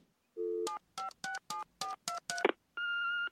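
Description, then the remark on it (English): A brief low tone, then about seven quick telephone keypad beeps in a steady rhythm, ending in a longer, higher steady tone, clear, with no voices. In The Simpsons, Homer dials Abe and reaches an answering machine. “Uh, Homer calls Abe, gets an answering machine, and then we get Marge.”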